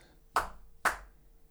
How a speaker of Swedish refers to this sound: Eh, men, men, men om jag, som jag kan illustrera, nu vet jag inte om det är lämpligt med mikrofon där, men om man, om man klappar med händerna liksom, då, då, då tycker ju eleverna inte heller att,